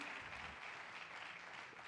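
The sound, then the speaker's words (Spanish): A crowd claps steadily, a dense, continuous patter of many hands that holds throughout without pause, sounding somewhat faint. “un fuerte aplauso”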